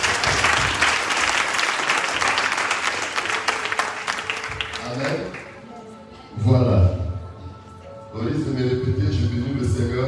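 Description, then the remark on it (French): A church audience bursts into loud, dense applause with cheering for about five seconds, acclaiming the word of the Lord after a Bible verse reading; the clapping thins out and gives way to raised voices calling out. “Que ceux qui aiment la parole acclament la parole du Seigneur.”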